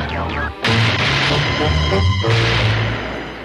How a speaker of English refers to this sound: Gunshots, monsieur. Gunshots, Pop. Gunshots, sir.